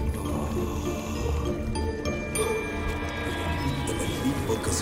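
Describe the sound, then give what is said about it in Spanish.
Water sloshes and splashes as someone lowers into a filled bath, with steady swirling and a few gentle squishy movements throughout. “se desnudó completamente y con los pies por delante se metió al agua, decidido a relajarse y olvidarse de lo acontecido en el bosque.”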